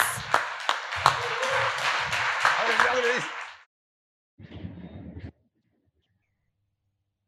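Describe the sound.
A burst of audience applause, dense and steady with sharper individual claps, and voices mixed in underneath for a few seconds; after a pause, a shorter, quieter second burst follows.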